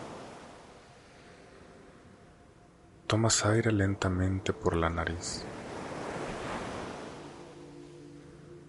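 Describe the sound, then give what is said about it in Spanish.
Steady ocean surf washing onto a sandy beach on a sunny day, waves coming and going in a soft continuous roar with gentle swells, while a calm voice speaks briefly in the middle over the waves. “Te sientas en la arena para escuchar el ruido de las olas que vienen y van.”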